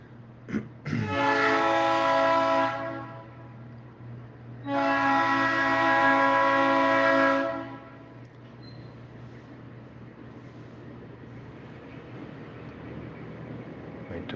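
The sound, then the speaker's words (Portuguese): A train horn blares twice in long, loud harmonic blasts, each lasting about two to three seconds, over a steady low rumble of rail traffic that continues after the horns stop. “Opa, vamos esperar o trem passar.”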